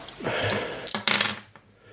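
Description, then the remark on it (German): Dice rattle and clatter across a hard tabletop in a quick burst of small clicks and knocks, rolled for an unarmed attack in a tabletop role-playing game, settling after about a second and a half with no one speaking. “Also da hätte er dann 41. Würfel mal.”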